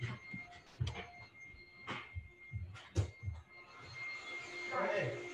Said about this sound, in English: hold on, I'm just gonna see if he'll chill on the vacuum real quick.